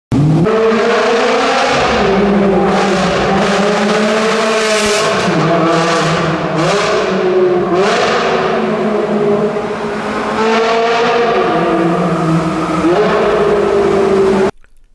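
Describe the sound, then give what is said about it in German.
A sports car engine revs hard and loud for about fourteen seconds inside a tunnel, pitch rising and dropping through repeated throttle blips, its roar echoing and reverberating. “Ähm, und weil es so schön ist, ähm, hören wir uns jetzt nochmal ein paar Aufnahmen aus einem Tunnel an, denn da halt das ja bekanntlich besonders gut.”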